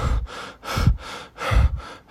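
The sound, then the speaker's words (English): A voice mimics a man's heavy panting as if he were jogging, with quick, loud breathy huffs repeating in a steady rhythm, with no words spoken. “And he said it's he, it got to a point where it sounded more Shot like as if he was jogging and he was panting.”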